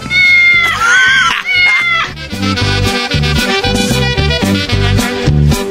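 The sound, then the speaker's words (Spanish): A drawn-out, loud cat meow sounds once near the start over a bright musical backing for Radio Gato, followed by several seconds of upbeat, rhythmic music with punchy beats. “Y Radio Gato.”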